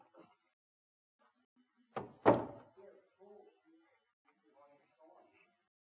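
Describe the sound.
Two heavy wooden thunks land close together as a chair is set down firmly, brought up for an illustration about faith, followed by faint shuffling and quiet, indistinct voices.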